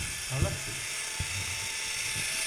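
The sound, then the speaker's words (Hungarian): A steady mechanical whirring of a Fiat Punto's spinning wheel during a performance measurement, with a thin high-pitched whine over a low rumble; a voice briefly sounds near the start. “Ez ilyen kerék hang egyelőre.”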